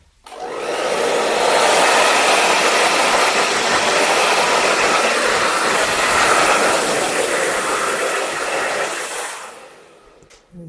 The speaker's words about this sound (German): Aber bevor wir dazu kommen, föhne ich dir mal einmal kurz die Haare. Die sind nämlich pitschnass und ich hoffe, du frierst noch nicht. Langsam doch. Ja, ne? es kommt die warme Föhnluft.